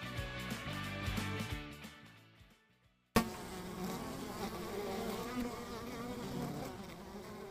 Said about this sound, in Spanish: escuchan ese sonido, ¿les parece familiar? El zumbido de la abeja. Y no parece el ruido de una sola, sino más bien suena como toda una colmena.